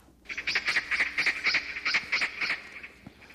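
A magpie calls in a quick run of harsh, rasping chatters, about a dozen notes in steady rhythm, clear, with no voices around it.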